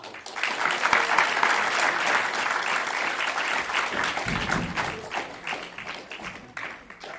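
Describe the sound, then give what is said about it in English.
A crowd claps in sustained applause to welcome a guest speaker, a dense steady patter of many hands that stays loud throughout before easing slightly toward the end. “Please, with a huge round of applause, welcome His Grace Chaitanya Charan”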